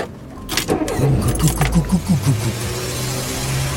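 A vehicle's stuttering engine is started: it cranks with a rapid series of uneven, stuttering chugs, then catches and settles into a steady low idle. Fairly loud, with no voices.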